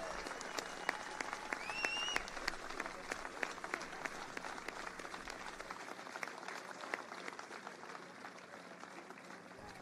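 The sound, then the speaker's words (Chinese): A crowd that includes law enforcement teams applauds steadily at a speech, with dense, continuous clapping, joined by scattered cheers and a couple of rising whistles early on, staying loud throughout. “让我们听听那些个今天在这里的执法团队你们的呼声吧。”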